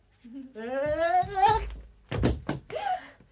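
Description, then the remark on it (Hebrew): A heavy, dull thud of someone landing after jumping from a roof across an alley onto a balcony, a short cluster of low thumps, with a raised voice and vocal sounds before and after it. “אתה קפצת מהגג למרפסת הזאת!”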